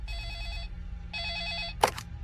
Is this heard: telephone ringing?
yes